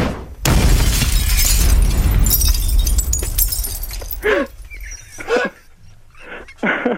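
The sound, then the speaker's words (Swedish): A Molotov cocktail, a bottle of petrol with a rag in it, is lit and shatters with a sharp crash, followed by a loud roaring whoosh of flame lasting several seconds, then a few short pained vocal outbursts. “Det här är en, det här är en flaska med bensin med en trasa i. Och det kallas för molotovcocktail.”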